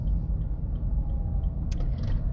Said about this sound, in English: So hold on one second. Crazy traffic right here.